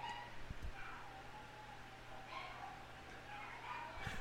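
Faint barks from household dogs come through a few scattered times over a low, steady hum, muffled rather than loud.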